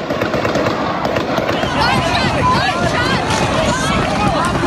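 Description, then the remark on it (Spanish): Rapid, dense crackling gunfire pops continuously as a gunman fires more than 70 shots into a crowd of people with a rifle resembling an AR-15, with voices shouting and screaming in panic throughout. “El pistolero hizo más de 70 disparos hacia la multitud de personas.”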